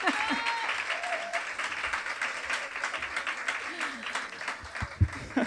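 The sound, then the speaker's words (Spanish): A crowd applauds steadily for several seconds, welcoming the guest Virginia Díaz as she is introduced: a dense wash of many hands clapping at a fairly even level, with a few faint voices and brief tones mixed in underneath. “Porque nos acompaña, por favor, y el mejor de los aplausos, la gran Virginia Díaz.”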